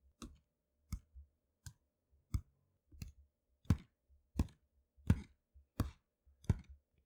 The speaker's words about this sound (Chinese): 哎，小朋友，这听起来像是人类的脚步声呢。